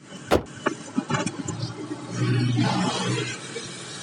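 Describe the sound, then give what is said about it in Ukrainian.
A car door thuds shut as a man gets into a car across the road from city hall, followed by a few clicks and rattles, then an engine cranks and catches, settling into a steady rumble. “З портфелем під пахвою він тікає і, зрештою, сідає в машину.”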